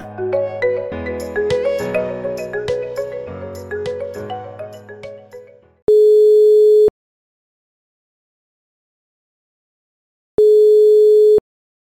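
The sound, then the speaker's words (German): A short burst of music fades out, then two long, steady telephone ringing tones sound, each about a second, with a long silent pause between them, like a call waiting to be answered. “das ist ja schön, dass du anrufst.”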